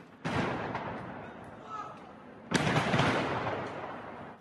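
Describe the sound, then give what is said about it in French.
A stockpile of fireworks near homes in the Cronenbourg district of Strasbourg, France, explodes and catches fire in two loud blasts, each followed by a sustained crackling roar that slowly fades, the second burst heavier than the first. “Une réserve de feux d'artifice a explosé et pris feu proche des habitations.”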